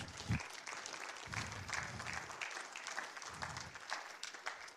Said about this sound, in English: Ah, yeah, that's good to clap about.